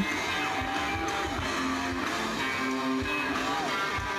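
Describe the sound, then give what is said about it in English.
A loud live rock band plays steadily on stage, with a nine-year-old boy on rhythm guitar plugged directly into the board without an amp; strummed rhythm guitar, sustained tones and regular drum hits fill a dense mix, with no talking. “What you're hearing is real audio from nine year old Michael's performance with ….”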